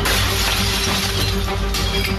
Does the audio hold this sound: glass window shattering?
yes